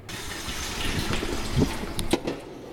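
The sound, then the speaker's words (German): Water runs steadily from a tap into a pot for cooking potatoes, a continuous splashing rush with a few brief clinks and knocks of the vessel near the end. No one speaks. “wird gerade Wasser für die Kartoffeln aufgesetzt.”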